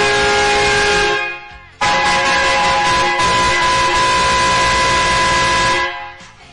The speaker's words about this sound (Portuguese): Aquele cara que chega com a buzina do caminhão nos momentos mais inoportunos da madrugada.